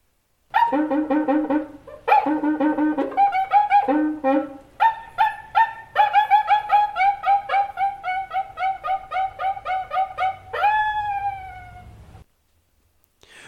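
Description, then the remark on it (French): A cuíca friction drum, held by a rod fixed in its middle with the other hand inside using a damp cloth, squeaks and whoops in quick rhythmic strokes, its pitch sliding up and down like a monkey cry, played alone and fairly loud for about twelve seconds before ending in a long gliding wail. “le fameux instrument que l'on tient d'une main par la tige fixée au milieu et l'autre main est insérée à l'intérieur dans l'instrument avec un chiffon humide pour produire un son ressemblant au, cri de singe, d'où l'origine de son nom d'ailleurs.”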